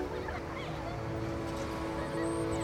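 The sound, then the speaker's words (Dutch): Birds call with honking, goose-like cries as they fly past over a shared back garden on a Friday evening as the sun sets, the calls overlapping above a steady low hum of background noise. “Er vliegen vogels voorbij.”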